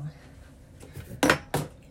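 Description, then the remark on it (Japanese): Two sharp metallic clinks of a utensil against a pot while cooking miso soup with mushrooms and dashi, one at about 1.2 seconds and another at about 1.55 seconds, standing out over a low, quiet background of faint cooking activity. “そんなことをしていると並行してお味噌汁も作りたいのできのことだしを入れてます。”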